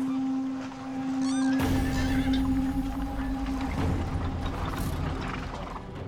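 A horse gives a rising, quavering whinny, then a loud, continuous rattling clatter of chariot wheels and hooves sets in and carries on steadily to the end, with no voices.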